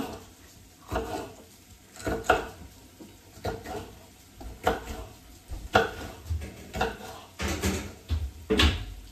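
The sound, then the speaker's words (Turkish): A knife chops peppers on a cutting board in a series of sharp, irregular knocks about a second apart, fairly loud, with soft kitchen clatter in between and no talking. “Biberleri de böyle doğrayalım.”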